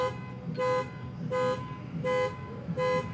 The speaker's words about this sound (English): they locked their keys in their car and set the alarm off trying to get their keys out of the car? That would just be terribly embarrassing if it's the case.